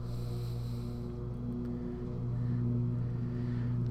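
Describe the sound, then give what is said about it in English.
A lawnmower engine drones steadily in a backyard, a low, buzzing hum with a slight swell in intensity partway through, continuous with no voices. “That noise is the lawnmower people in my backyard.”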